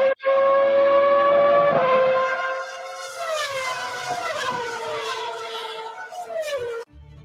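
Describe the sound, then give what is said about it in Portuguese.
A Formula One car capable of 355 km/h revs at the starting line, its engine screaming at a high, steady pitch, then its whining note dips and surges through several rising and falling revs before cutting off abruptly. No voices. “A 355 kilometer per hour cannonball revving at the starting line.”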